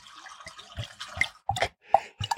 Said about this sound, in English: Let's just pour a little bit of port.